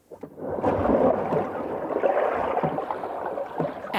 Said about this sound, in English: But that noise you hear is keen scuba divers, and they rave about the incredible World War II wreck diving.